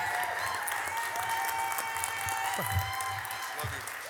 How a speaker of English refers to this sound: And so can y'all clap and welcome Pastor Doug as he comes and preach this morning?